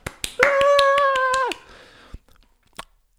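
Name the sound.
hand clapping applause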